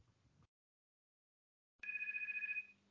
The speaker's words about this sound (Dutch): Ik hoor iets van een telefoon.